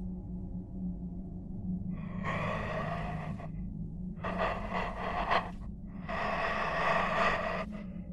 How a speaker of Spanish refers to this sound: No hubo ningún sonido por minutos, hasta que se volvió a escuchar la misma respiración, pero ahora alejada del teléfono.